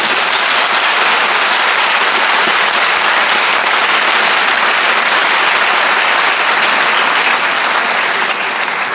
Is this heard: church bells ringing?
no